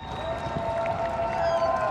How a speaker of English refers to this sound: In New York City, the epicenter of the crisis, there's a nightly round of applause for the frontline healthcare heroes.